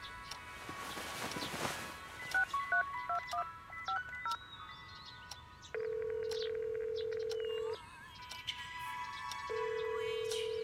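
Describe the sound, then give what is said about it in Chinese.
A brief rustle, then a quick run of electronic keypad beeps as a number is dialed, followed by long steady low ringback tones with a pause between them. “好，那就打电话问问。”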